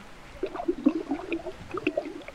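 Salt-water brine, used on an island for soaking fish to be made into dried fish, pouring into a container, with small bubbly gurgles and irregular wet pops at a fairly quiet level, no voices.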